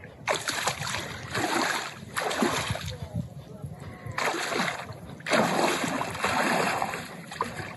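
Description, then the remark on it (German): A person wades into the cold water of the Saar river for an ice bath, with repeated bursts of splashing and sloshing, each surge lasting a second or two, separated by brief quieter moments. “Am Ufer der Saar mache ich die Atemübung und dann rein.”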